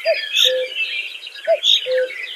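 A common cuckoo calls twice, each a clear two-note falling 'cu-coo', with a steady chorus of smaller birds chirping brightly in the background. No one speaks.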